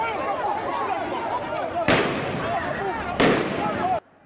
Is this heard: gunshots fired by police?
yes